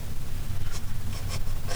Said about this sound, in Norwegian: Tar eh, nøklene ut av eh, kåpelomma, for jeg har allerede rukket å lagt nøklene i lomma igjen. Men jeg har allerede begynt å mm, gå med kåpe i høstværet.